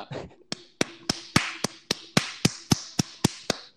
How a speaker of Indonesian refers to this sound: Kayak tepuk tangan cepat cepet.